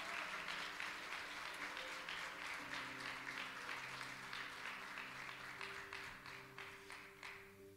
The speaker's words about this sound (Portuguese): Se você crê, aplauda o Senhor, glorifique ao Senhor, exalte ao Todo-Poderoso.